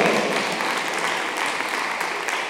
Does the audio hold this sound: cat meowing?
no